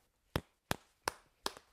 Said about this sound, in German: macht es jetzt gerade mal mit den beiden Möhren. Und das hört sich dann einfach wie so ein Klopfen an, ne?